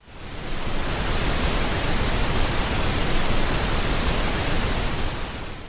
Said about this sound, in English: Here's a quick sample of pink noise. I'm going to fade in and then fade out of this so it's not just jarringly loud.